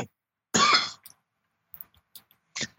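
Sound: man coughing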